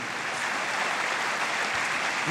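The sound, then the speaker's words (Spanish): An audience applauds in praise of God during a sermon, a dense, steady wash of many hands clapping at once that holds its level throughout, with no voices on top. “Alguien tiene que aplaudir por ese Dios.”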